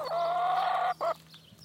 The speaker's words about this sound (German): Habe ich jetzt noch das letzte Huhn? Ihr habt das reinste Hühner-ASMR.